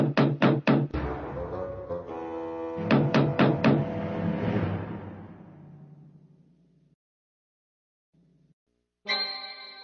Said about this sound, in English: The pigs were deep in conversation when they heard an angry knock on the door.